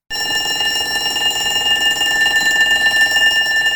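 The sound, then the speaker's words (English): A loud electric school bell rings nonstop, a steady metallic clanging that begins abruptly and holds at full volume throughout, with no voices present. “A school bell. School bells ring to tell us when activities begin and end.”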